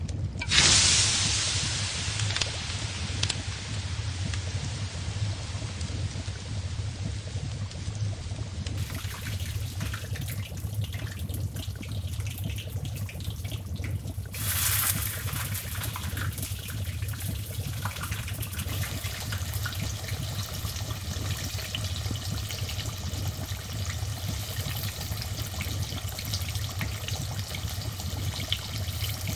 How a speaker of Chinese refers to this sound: 不是哦，这个是大家都喜欢吃的炸鸡的声音。